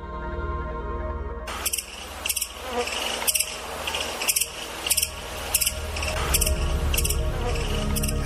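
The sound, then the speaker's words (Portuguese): A dense swarm of locusts, a rare locust cloud, buzzes and rasps with sharp rhythmic bursts pulsing about twice a second over a steady low rumble and hum. No one speaks. “conversando com a gente um pouco mais sobre esse fenômeno raro da nuvem de gafanhotos.”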